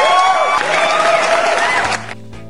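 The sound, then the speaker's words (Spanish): A burst of applause on a radio show in León, Guanajuato, following a short commercial for a vinyl record shop, with crowd cheering and a whistle-like tone, loud and dense for about two seconds before cutting off abruptly into a faint tail. “Aplausos para ese pequeño comercial para agarrar motores.”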